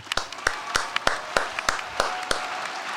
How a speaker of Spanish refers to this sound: Ovación.